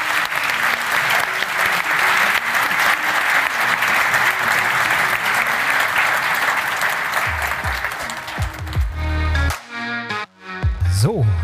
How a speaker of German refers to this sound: Aber ich sage schon mal Danke an die Teilnehmer. Danke, dass ihr dabei wart. Vielen, vielen Dank. Toll. Danke. Applaus für die Teilnehmer.